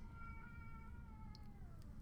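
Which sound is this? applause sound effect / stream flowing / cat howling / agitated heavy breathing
cat howling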